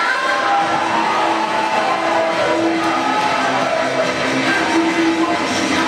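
A crowd bursts into loud, sustained applause mixed with cheering and shouts, a dense steady roar of clapping and voices that keeps going for about six seconds without letting up.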